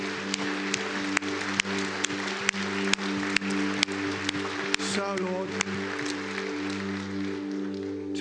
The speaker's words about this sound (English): Uh, let's sing and let's give together right now. And applaud him in worship.